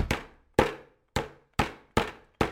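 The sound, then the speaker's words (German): Six firm, evenly spaced thwacks of a mallet pounding schnitzel cutlets flat between sheets of cling film, each a sharp strike with a brief ringing decay, steady rhythm, no voices. “Gut, dann geht es los. Klopfen!”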